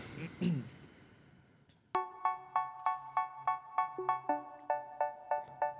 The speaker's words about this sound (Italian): È un singolo … della cantante australiana …, pubblicato il 10 maggio 19